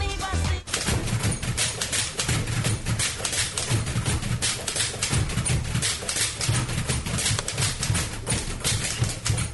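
Music performed entirely on typewriters: dense, rapid clacking keystrokes and carriage dings forming a steady rhythmic groove with low thumping beats underneath, loud and continuous throughout.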